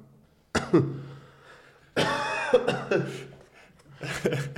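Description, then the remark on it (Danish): A harsh coughing fit from something caught in the throat, in several bursts: one sharp cough, then a longer strained cough with throat rasp, and another rough burst at the end, fairly loud. “Øh, ja, jeg fik bare øh, det 2000 år hoppet over i min hals der.”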